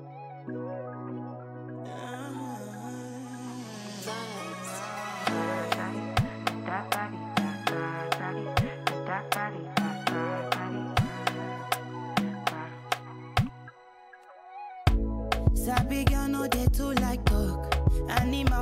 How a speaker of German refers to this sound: Bleibt dran und startet mit etwas Musik in die Sendung.